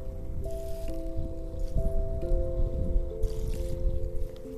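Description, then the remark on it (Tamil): Water gurgles and sloshes steadily as a motor pump fills a rooftop water tank, with the constant tonal hum of the pump motor running underneath. “குளுக் குளுக்குன்னு ஒரு சவுண்டு என்னன்னு பார்த்தா அந்த தண்ணி டேங்க் மேலே தண்ணி டேங்க் மேலே உட்காந்துட்ருக்கேன் மோட்ரு போட்டிருக்காங்களா அந்த தண்ணி வந்து இந்த டேங்க்குள்ளே போகுது கலக் கலன்னு சவுண்டு வருது”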